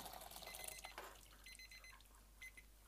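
timer alarm going off

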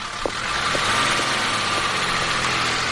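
car engine running

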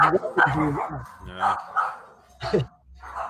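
dogs barking

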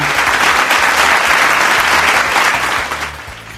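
applause

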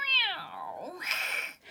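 cat meowing

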